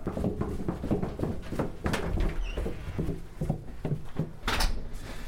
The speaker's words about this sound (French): On va ouvrir les grosses portes qui se ferment parce que c'est vraiment hermétique. On n'a pas, pas, le choix.